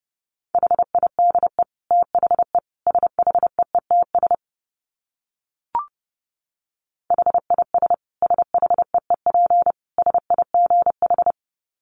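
Morse code at 30 words per minute: a steady mid-pitched tone keyed in rapid short and long beeps, in two runs separated by a pause and a faint click, with no voices.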